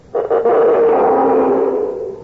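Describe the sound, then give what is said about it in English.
A loud, raspy roar made by pulling a rosined string through a big tin can to imitate a mountain lion, starting with a couple of quick stutters and then holding as one long groaning, growl-like drone for about two seconds. “I'm going to hide in the bushes and pull this string with the rosin on it through this big tin can like this.”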